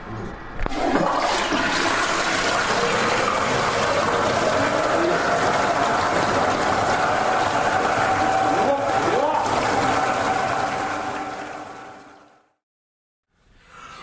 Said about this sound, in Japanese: で、えー、僕の家のトイレっていうのが、地獄の釜の底の音がするんだと。とんでもない爆音が流れて、はいうん、これがなんか別の意味でちょっと怖いぞ。